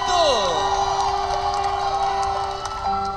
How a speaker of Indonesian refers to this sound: last but not least we have Miss Bangka Belitung silakan iringi dengan tepuk tangan yang meriah untuk Miss Bangka Belitung